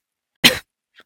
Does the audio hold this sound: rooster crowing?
no